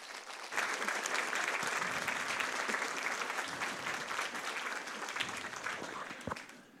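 A crowd applauds steadily for several seconds, a dense wash of clapping that starts abruptly and holds at an even level before tapering slightly toward the end.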